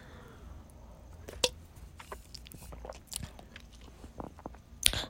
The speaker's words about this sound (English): Ugh. Let me take a sip of my wine. Two seconds.